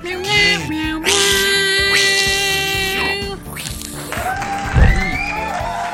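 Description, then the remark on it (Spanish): People imitate a cat's meowing, several drawn-out, tonal vocal meows with rising and falling pitch, fairly loud, one after another over a few seconds. “deberíamos de componer una oda al gatito. Ay, sí. Así, miau, miau, miau, miau.”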